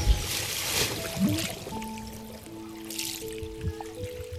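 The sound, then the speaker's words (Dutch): Steady flowing river water rushes and trickles at moderate volume, with soft sustained musical tones running beneath it and no voices. “Ze schoot door de rivier tussen de stenen en de bomen door, recht naar de waterval.”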